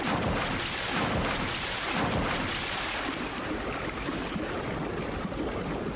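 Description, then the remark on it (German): Loud, continuous rushing and churning of water fills the whole stretch, like a splash as several jump into water, followed by a steady, turbulent underwater wash of bubbles as they dive, with no voices. “Los, wir springen alle ins Wasser. Und dann folgen wir dem Laternenfisch.”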